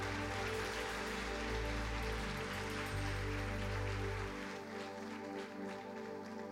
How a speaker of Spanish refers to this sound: Y todo el pueblo dice, y mucho más fuerte, dale fuerte un aplauso al Señor.